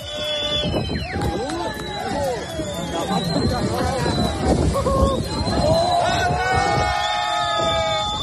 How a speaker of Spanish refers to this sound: Esto a escasos metros de la bocana del puerto de Barbate. En ese momento, un grupo de jóvenes que estaba en la playa ha comenzado a jalear y a vitorear a los narcos mientras se arremetían contra la Guardia Civil.